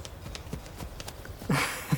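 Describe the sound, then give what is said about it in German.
Quick, evenly spaced footfalls of two people running barefoot hand in hand over roots and rocks toward a small rock ledge at a lake shore, moderately loud, followed near the end by a sudden louder rushing burst of noise. “Für einen Moment halten wir inne, schauen uns kurz herausfordernd an und rennen dann Hand in Hand bis zu einem kleinen Felsvorsprung, von dem wir laut lachend ins kühle Nass springen.”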